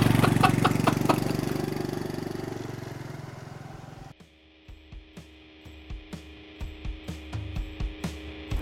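A motorcycle engine, not a Harley, runs loudly with a dense, throaty roar, then abruptly drops to a lumpy idle with steady, evenly spaced putt-putt pulses. No talking.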